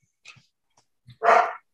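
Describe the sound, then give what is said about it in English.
A dog lets out a couple of small yips followed by one loud, sharp bark, with no one speaking. “I'm always editing my dog out. He's a terrible pod partner.”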